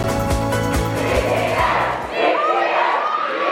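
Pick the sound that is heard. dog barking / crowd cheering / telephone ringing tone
crowd cheering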